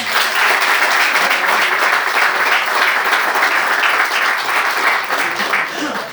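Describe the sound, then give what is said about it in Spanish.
A church audience breaks into sustained applause to welcome newcomers, a dense, steady wash of many hands clapping at once, loud and even for several seconds before tapering slightly at the end. “Un aplauso, Amén.”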